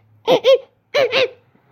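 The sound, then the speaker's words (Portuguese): A voice trying to imitate a dolphin instead makes a monkey-like animal call: two pairs of quick, arching hoots, fairly loud, separated by a brief pause, with no other speech. “Ok, isso foi um barulho de um macaco, eu não sei fazer barulho de golfinho.”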